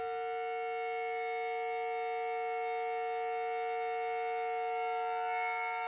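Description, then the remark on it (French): A kettle, being recorded for its sound, whistles in a steady, continuous shrill tone, loud, holding the same pitch without pause for several seconds, with no voices. “Alors que Jean commence à enregistrer cette bouilloire, il se rend compte que ce n'est pas du tout le son qu'il espérait.”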